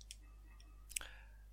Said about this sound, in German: Ja, dann äh, bist du, glaube ich, dran mit Würfeln, ne? Ja, ich habe zwei abgehakt und äh, Ja, ja. Äh, bei, jetzt kommt das letzte Mal, dass ich würfel.